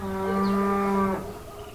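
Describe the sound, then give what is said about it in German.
A single loud, drawn-out cow moo lasting about a second, then fading into quiet farmyard ambience with no one speaking, at the Gladbacher Hof state farm near Limburg, Germany, an organic farming research farm of the University of Giessen. “auch ihn treffen wir auf einem Bauernhof”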